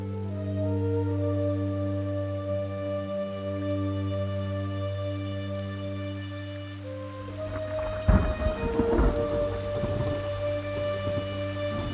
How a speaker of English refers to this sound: I didn't know that you were standing out here in the rain.